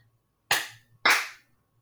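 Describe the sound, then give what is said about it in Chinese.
Two loud, sharp hand claps about half a second apart, each with a bright, crisp snap that trails off briefly, over a faint low hum and no talking. “不好意思，不好意思，好好好， 拍手拍手。”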